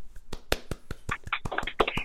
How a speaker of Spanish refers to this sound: Un aplauso.